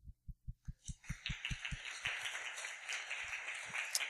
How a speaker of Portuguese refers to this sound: Olha, parabéns pela equipe de shows de ontem. Quero aplaudi-los.